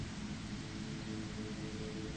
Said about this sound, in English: As soon as I finished this statement, the line turned to static and then cut out.